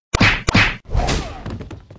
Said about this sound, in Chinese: 便被几拳头给砸倒了。